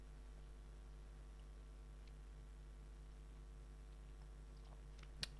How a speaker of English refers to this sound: Yeah, I still want to chew the whole time during this show. I'll have another bite. So I can talk with my mouthful.